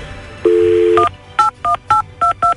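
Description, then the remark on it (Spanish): A steady phone dial tone hums briefly, then five crisp touch-tone beeps follow in a quick, even rhythm as a telephone number is keyed in, loud with no voices. “ok, vamos, a la línea, vamos a marcar.”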